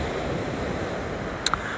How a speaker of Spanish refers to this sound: Y los que están fuera de Puerto Rico, están en otro lugar, otros países, que no tengan accesibilidad a un océano, pues escuchen esta belleza de mar puertorriqueño.